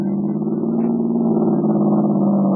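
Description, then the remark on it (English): A car engine revs steadily and loudly, a sustained low droning roar with slight pitch shifts as the vehicle leaves an airfield and swerves over toward a running man, no voices present. “Honk the horn. I'll swing over and get as close to him as I can.”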